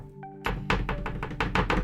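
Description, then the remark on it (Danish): A smartphone is set down on a table with a dull thunk, then rocks back and forth on its protruding rear camera lens, making a quick series of hard little taps that keep clattering for over a second. “Skal man sige noget alligevel, så er der øh, kameraet på bagsiden her, der så gør, at når man lægger telefonen ned på bordet,”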